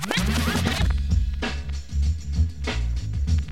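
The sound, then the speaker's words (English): A DJ's record rewind scratch whips rapidly back and forth at the start, then a heavy, thumping bass beat rolls in and loops steadily with punchy kicks. “Rewind the rhythm,”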